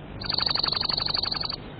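A bird chirps in a quick, even trill of rapid high notes lasting just over a second, clear, with no talking; a sick little bird that Caillou is caring for and offering bread.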